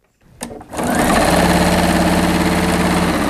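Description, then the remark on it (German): A sewing machine in a small shop in Darmstadt's city centre, used by Christine Gelitz to sew a mouth-nose face mask in her fashion boutique, starts up with a brief click and whir, then settles into a loud, steady rattling hum with a fast, even mechanical pulse that continues without pause. “Christine Gelitz ist alleine in ihrem kleinen Ladenlokal in der Darmstädter Innenstadt und lässt die Nähmaschine rattern.”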